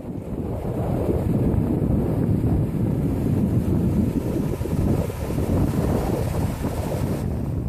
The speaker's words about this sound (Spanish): Eso que estamos escuchando, Valeria, proviene del municipio de Necoclí, en el Urabá antioqueño es uno de los tantos días de mar y playa de tan bello municipio